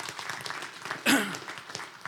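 An audience applauds a youth group that works against bullying, with dense, steady clapping throughout, and a brief loud whoop or cheer rises above it about halfway through.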